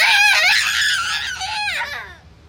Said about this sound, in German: Richie interessiert … Geschrei nicht.